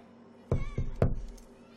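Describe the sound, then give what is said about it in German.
Three firm knocks on the door of the director's office in quick succession, evenly spaced and fairly loud, with no talking around them. “Äh, zum Direktorenzimmer. Okay. Und klopfe einmal.”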